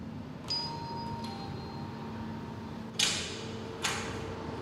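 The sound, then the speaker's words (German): A doorbell at the entrance of a gallery: two quick bell-like chime tones ring out and linger over a low background hum, followed a moment later by two sharp clunks like a door latch or buzzer. “Und ich klingel nun.”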